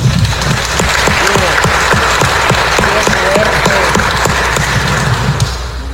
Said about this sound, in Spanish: Le damos un aplauso al Papa, ¿no?